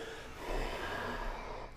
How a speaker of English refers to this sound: Let the pressure build, let the steam build. Huge breath out.